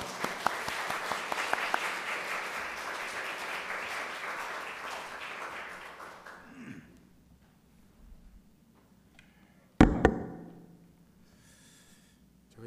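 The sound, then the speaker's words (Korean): A church audience gives a big round of applause to welcome a missionary, with dense steady clapping for about six seconds before it fades out. Quiet follows, then a sharp thump with brief rustling. “우리 선교사님 오랜만에 뵙는 거니까 우리 만날 때 우리 오실, 모실 때 큰 박수로 환영했으면 좋겠습니다.”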